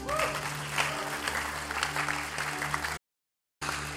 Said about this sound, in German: Geben wir ihm nochmal Applaus.